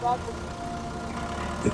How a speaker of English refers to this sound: In harvesting, we have a, a, a, a truck there loading watermelons.